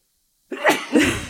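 A single loud sneeze: a sharp intake followed by an explosive, breathy burst and a trailing exhale, heard on its own after a moment of silence.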